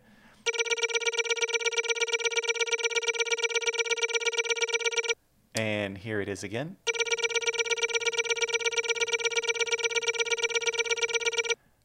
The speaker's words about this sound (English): Any guesses on what this sound is? That is the uh, Guardian charging sound. Oh! Before it oh! hits you with the laser.